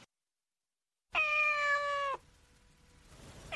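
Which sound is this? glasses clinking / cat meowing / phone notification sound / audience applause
cat meowing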